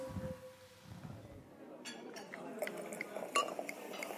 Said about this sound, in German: Dann stoßen wir nochmal an mit unserem